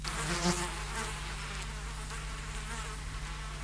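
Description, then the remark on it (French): A low, droning buzz hums steadily throughout, unbroken and even, seeming to fill a closed room with no voices. “Un bourdonnement grave emplissait la pièce.”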